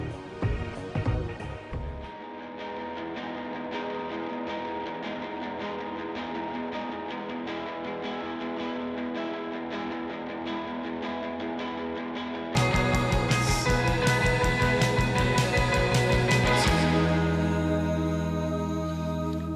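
An indie rock song plays loud and steady with a full band sound, growing denser and brighter in a new section near the end, with no one talking over it.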